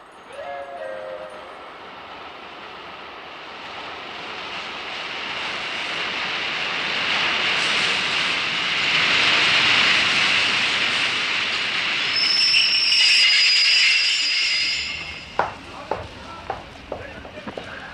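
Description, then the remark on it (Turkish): A train rolls into Haydarpaşa station with a steady rumble that swells, then brakes squeal high and shrill before it slows to a stop with a few sharp metallic clanks. “Doktor Fahir ikinci hikayesini de böylece bitirdiğinde tren Haydarpaşa garına girmiştir.”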